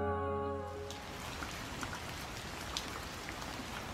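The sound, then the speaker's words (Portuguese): Heavy rain pours steadily in a dense hiss with scattered sharper drop impacts, while a low humming tone fades away in the first second. “Reza a lenda que na época que Babuca ficou escondida, um forte temporal aterrorizou a todos da região. Com chuvas fortes, acompanhadas por raios, relâmpagos e trovões”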